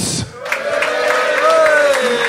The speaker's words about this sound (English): Not bad, not bad cheer for Monday evening. After England defeat, that's not bad.